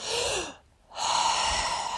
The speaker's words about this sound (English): Or you can do a reset breath. Instead of breathing out, breathe in